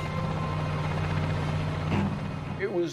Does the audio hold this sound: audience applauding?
no